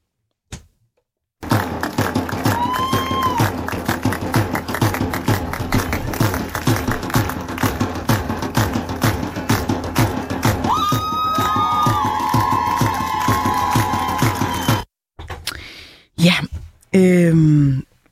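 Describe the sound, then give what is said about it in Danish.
A large crowd at a demonstration in support of the Iranian women's struggle cheers and shouts continuously for about thirteen seconds as a woman is lifted up onto the stage, a dense roar with whistles and raised voices rising above it, before cutting off abruptly into brief scattered noise. “I søndags, ja, der deltog hun nemlig i en demonstration, hvor hun blev hævet med op på scenen til stor jubel for mange deltagere.”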